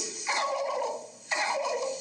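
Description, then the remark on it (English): A voice imitates an old wild turkey gobbler sitting up in a tree in the morning: two loud, rattling, downward-warbling gobbles, the second starting about a second after the first. No talking is heard around them. “She'll get up in the morning time and she'll He'll tell the world how sweet it is, and he'll sit up there in that tree,”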